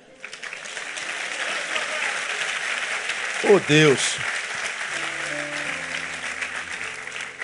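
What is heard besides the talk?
audience applause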